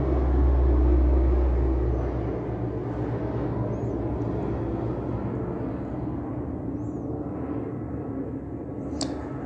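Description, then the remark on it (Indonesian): A loud, steady roar of an airplane passing overhead, heaviest in deep rumble at first and then holding as a broad, droning wash of engine noise with no talking. “ya sepertinya terdengar kencang sekali ya baru kali ini saya tik sekencang ini suara pesawat”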